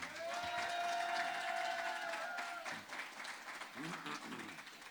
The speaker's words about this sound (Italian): Quello è un applauso. È un applauso, va, va bene.